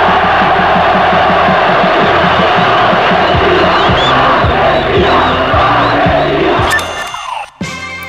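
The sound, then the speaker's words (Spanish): A massive crowd in the Plaza de Mayo, Argentina, roars and cheers in acclaim of Galtieri on 2 April, a dense, loud wall of voices with a steady rhythmic chant pulsing beneath, until the sound cuts off abruptly near the end. “Realmente eh, era muy sorprendente ver a, Iagaltieri Galtieri este, en, este momento de gloria, eh, este, aclamado por la gente, este, una cosa realmente insólita, ¿no?”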